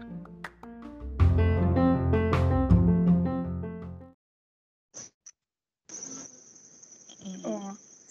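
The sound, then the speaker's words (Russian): Crickets chirp in a thin, high, steady trill after a few short bursts, with murmuring lower sounds underneath; before that, a man plays a rich melodic saxophone in the background, then a brief pause. “Сверчки и магический дяденька на заднем фоне.”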